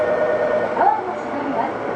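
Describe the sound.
A Tokyu 8500 series commuter train running between Omotesando and Azamino, with a steady mechanical rumble and a motor whine that briefly rises in pitch. A voice speaks over the train noise.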